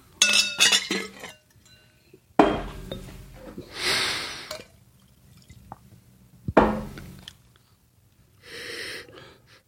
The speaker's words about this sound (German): das Glas ausspülen hier.